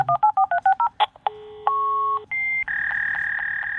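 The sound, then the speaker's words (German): A modem dials a telephone number in a quick run of about seven touch-tone beeps. Steady modem tones follow, alternating high and low pitches that signal zeros and ones, then a harsh, continuous data-signaling screech. Loud, with no talking. “Genau, und hier hören wir gerade eine ziemlich typische äh, Signalisierung, wo wir halt hohe und tiefe Töne dabei haben, die äh, Nullen und Einsen signalisieren.”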